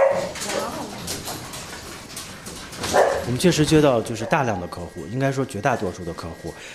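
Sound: puppy barking and whimpering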